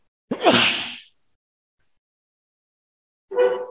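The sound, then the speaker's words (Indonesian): A single loud sneeze bursts out with a sharp intake and explosive release, followed by nearly three seconds of silence before a voice briefly begins speaking. “Ya, Yahdikumullah yasbarakum.”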